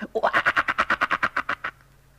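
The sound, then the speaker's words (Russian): A frog croaks in a quick, steady run of about a dozen evenly spaced pulses. The sound is loud, lasts under two seconds, and then stops, leaving near silence. “Она уж никак не могла удержаться, чтобы не квакнуть хоть разик.”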